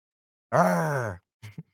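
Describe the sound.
A person imitates a tiger's growl with one drawn-out, throaty roar lasting about two-thirds of a second, then two short, softer grunts after a brief pause.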